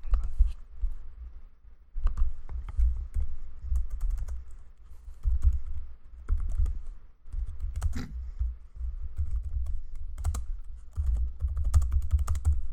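Steady typing on a computer keyboard, a continuous patter of quick clicky keystrokes with brief pauses, close to the microphone over a low rumbling background, with no talking.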